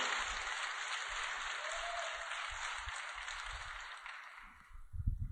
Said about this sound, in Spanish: ¿Podemos darle un aplauso a Dios por eso?